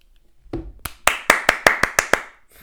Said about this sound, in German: Hast du geklatscht? Ja, ich habe geklatscht.